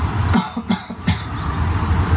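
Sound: light cough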